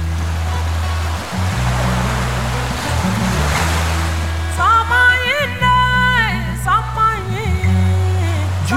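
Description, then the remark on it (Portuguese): Ocean waves wash and hiss steadily over a deep, sustained musical drone, with wavering, gliding tones rising in over the second half. The ocean is the one lying between Brazil and Africa. “No meio, um oceano que guarda em suas profundezas destroços e memórias da escravidão de um povo, forçado a cruzar o horizonte que dividia a liberdade na terra de seus antepassados da barbárie do cativeiro”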